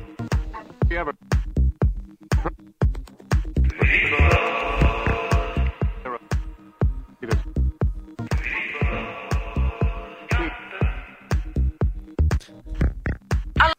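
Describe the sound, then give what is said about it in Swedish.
An electronic beat remix of the Svedim jingle, a video remix mashup: steady punchy kicks and clicks throughout, with two bright, chopped bursts of the jingle sample cut in over the rhythm. “Det är mer av en videoremix, men eh, ljudet är ju talande för man hör intervjun. Det blir bättre för att det är en beat.”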